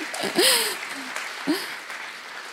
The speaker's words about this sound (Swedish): Och eh, vi brukar ju ge de här en applåd så vi kan väl göra det den här söndagen också.